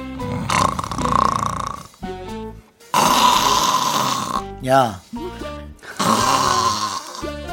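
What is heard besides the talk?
person snoring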